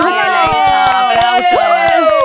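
An audience claps in a steady, rhythmic beat, loud, while voices sing or call out over the clapping.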